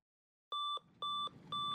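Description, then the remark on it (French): A boat computer's wind alarm beeping on the afternoon of November 30th as the wind picks up, waking a sailor from a nap: three steady, high electronic beeps in an even rhythm, each about a quarter second long, with a low rumble of background noise between them. “On the afternoon of November 30th, Kevin was taking a nap when the wind alarm on the boat computer woke him up.”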